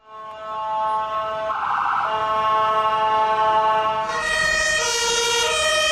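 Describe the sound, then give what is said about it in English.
A loud emergency vehicle siren sounds steadily, its tone stepping between pitches in a two-tone European style, with a harsher shift in the last couple of seconds. No one speaks. “That's the European sound.”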